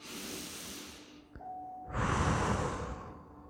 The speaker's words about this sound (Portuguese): Faça uma respiração bem profunda. Sinto o ar entrando, saindo. Faz mais uma respiração bem profunda de volta.